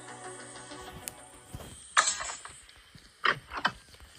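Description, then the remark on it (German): A crowbar pries boards off a nailed-shut window: low creaking and grinding, then three sharp cracking wrenches of wood and nails pulling free, fairly loud, with no talking. “So, jetzt können wir hier nämlich mit dem Brecheisen das Fenster, was zugenagelt ist, frei nageln.”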